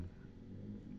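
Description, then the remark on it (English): A small engine, a dirt bike or four-wheeler, drones steadily with a low, rumbling growl as it goes down the road, fairly loud and continuous with no talking. “That's a dirt bike or a four wheeler or something.”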